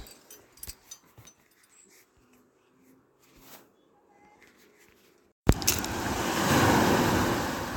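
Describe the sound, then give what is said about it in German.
A few seconds of near-quiet with faint scattered taps, then a sea wave abruptly crashes and its loud, hissing wash surges and swells on the seashore until the end. “Ich glaube, man hört das schon. Wir haben uns ans Meer begeben.”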